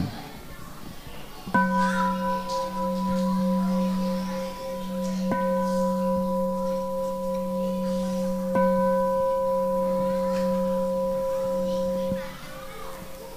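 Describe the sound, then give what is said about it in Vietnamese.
A temple bell at Giác Ngộ pagoda is struck three times at slow, even intervals, each strike blending into a long, steady humming resonance, with faint children's voices in the background. “bây giờ các con hãy lắng nghe tiếng chuông nha”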